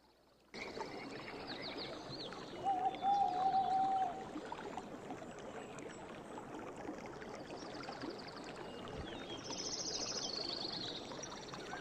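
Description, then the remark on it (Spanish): Continuous forest nature ambience, the 'Sonidos del Bosque' recording from the YouTube channel Casio Toledo, with a dense, rustling bed of sound, scattered high bird chirps, and a brief drawn-out tonal call early on, steady and moderately loud throughout. “Es Sonidos del Bosque. Sonidos de la Naturaleza.”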